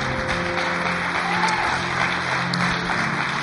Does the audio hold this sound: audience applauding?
yes